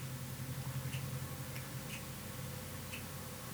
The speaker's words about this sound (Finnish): Kellon tikitys kuuluu hyvin tähän tota, taloon. Täällä on tosi hiljasta ja rauhallista muuten